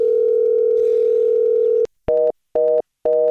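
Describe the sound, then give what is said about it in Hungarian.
A steady, loud telephone line tone holds for nearly two seconds, then a click and three short, evenly spaced beeps as the call switches over. No one speaks. “Most meg akkor valami üzenet rögzítő, vagy nem tudom mire, mire váltott.”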